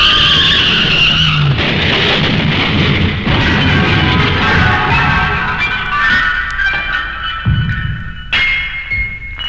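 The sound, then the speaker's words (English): A runaway garbage truck skids loudly in the street for several seconds, tires screeching in a shrill, wavering squeal over a deep rumbling engine, continuous before an abrupt thud near the end. “She grabbed my laundry and ran into the street, directly into the path of a runaway garbage truck.”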